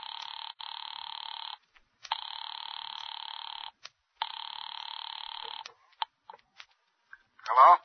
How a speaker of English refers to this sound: Ringing Murray Hill 40098.